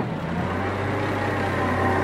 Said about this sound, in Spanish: hacerse cargo de la situación en la ciudad de Córdoba. en la primera unidad del ejército que se acerca para hacer su entrada en la ciudad y tomar a su cargo el control de la misma. 45 jeeps, 15 camiones, dos ómnibus y tres automóviles particulares